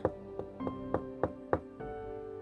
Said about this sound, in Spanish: Cuando él llega a su casa, pues con un poco de miedo porque pues, la casa estaba muy fea, pero tocó la puerta.